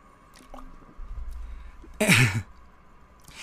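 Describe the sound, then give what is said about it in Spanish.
Someone drinks water: a low handling rumble, then one short, wet swallow with a breathy burst, followed by quiet background noise. No one speaks. “Déjame, tomar agua.”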